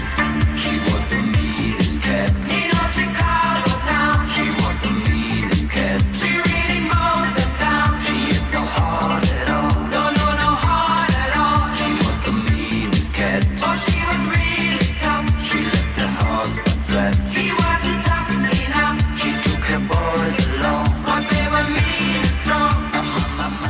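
An upbeat disco track plays steadily throughout, with a pumping bass line, driving four-on-the-floor beat and bright layered instrumentation at full, even loudness. No one talks over it.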